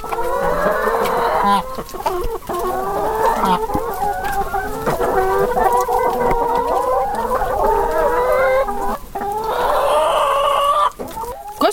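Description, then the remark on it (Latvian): A flock of brown laying hens of a laying cross, Lohmann Brown, part of 280 hens kept by egg producer Ieva at Ceplīši in Skulte parish, Limbaži municipality, clucks steadily, their overlapping calls filling the scene, while a rooster crows now and then among them. No one speaks. “Jānis atbild par plombīra saldējumu ražošanu, bet Ievas pārziņā ir 280 vistas.”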